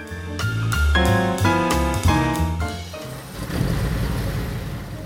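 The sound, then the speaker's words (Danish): A large bus engine idles in a big parking lot outside an airport, a loud droning hum with rhythmic pulses that settles into a rougher low rumble. No one speaks. “De finder hurtigt bussen, som de skal køre med hen til hotellet uden på den store parkeringsplads, og de får deres bagage ind i bagagerummet nede under bussen, og så går de ind for at finde en plads at sidde på.”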